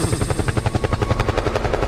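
Loud helicopter rotor thumping in a fast, steady rhythm, with a constant engine whine layered underneath; no voices are heard.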